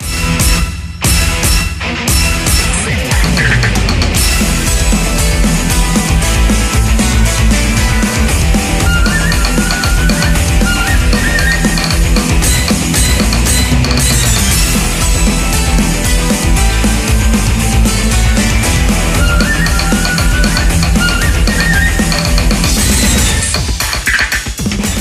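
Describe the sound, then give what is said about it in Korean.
Loud, dense instrumental music plays continuously for the whole stretch, with a driving beat, strong bass and bright layered melody: the Asuka transformation theme from the renewal soundtrack of a Kagura video game. No voices are heard. “어, 자, 지금 나오는 곡은, 어, 썸남 카구라. 네. 버스터 리뉴얼 OST죠.”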